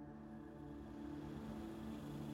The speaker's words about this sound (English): The engine is revved loudly. The men get into the vehicle and they drive away into the night.